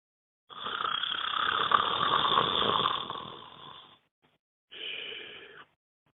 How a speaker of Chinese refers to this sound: 这天深夜，我隐隐的听见窗外有鼾声，粗粗的，黏黏的。